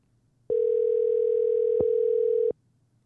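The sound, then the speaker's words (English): A single ring of an outgoing phone call: one steady, electronic tone lasting about two seconds, clear and fairly loud, then silence. No one speaks. “Let's see if Carlos will pick up the phone for us. All right, we're ringing.”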